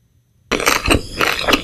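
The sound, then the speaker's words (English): Loud crunching of a woman chewing cornflakes cereal, with repeated brittle crackling bursts that start abruptly after a moment of silence and continue steadily. “This is a lady eating cornflakes.”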